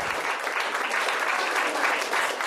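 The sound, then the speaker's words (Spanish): A steady burst of applause, many hands clapping in a dense, continuous wash of crisp, bright claps at an even, moderately loud level throughout, with no voices standing out. “Ay, un aplauso.”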